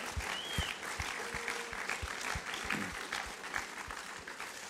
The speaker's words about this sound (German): Genau, wir können denen mal einen Applaus geben.